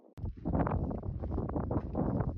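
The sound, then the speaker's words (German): Strong wind buffets the microphone in heavy, continuous low rumbling gusts that start abruptly and stay loud throughout, with rough fluttering bursts and no voices, on a climb up steps over dusty, dry ground in a barren landscape without trees or greenery. “Der Wind bläst kräftig.”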